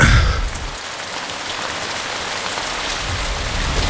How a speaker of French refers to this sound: C'est beau le son de la pluie quand même, hein. Ouais. Mais les gens, euh, ils l'entendent pas.